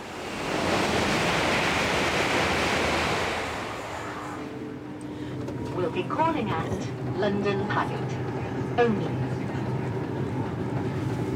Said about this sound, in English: are on the train back from our visit to Slough